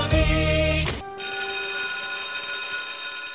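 A school bell rings loudly and continuously, a harsh metallic electric clatter that breaks off for a moment after the first second, then keeps ringing steadily to the end.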